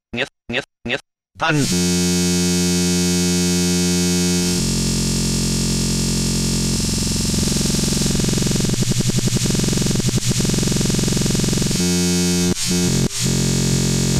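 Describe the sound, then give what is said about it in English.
A few short vocal bursts open onto a very fast speedcore track: loud, heavily distorted and buzzing, with dense rapid-fire percussion hammering under a sustained harsh drone that cuts out briefly near the end. “A lot of um, a lot percussion of BP- and BPMs placed very close together.”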